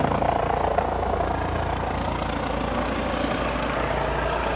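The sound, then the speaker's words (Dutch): A helicopter flies overhead by a hospital, heading for the helipad on its roof, its steady low rotor thump and engine drone filling the scene continuously and loudly, with no one speaking. “Zie je wel, daar is die. Oh, hij, hij, hij moet nog overvliegen.”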